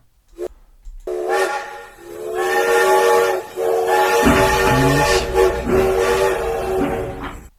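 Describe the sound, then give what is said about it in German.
A loud, sustained steam train whistle sound effect blows with strong harmonic tones, joined by rumbling and hissing of a train, filling the whole stretch with no talking. “D-Hype-Train äh, der heutigen Episode.”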